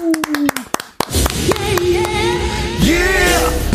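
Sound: clapping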